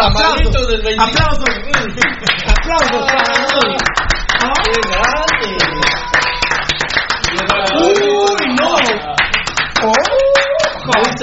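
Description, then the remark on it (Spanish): Steady, dense applause of many hands clapping throughout, loud and continuous, with voices shouting and calling out over the clapping. “Mam, Aplausos.”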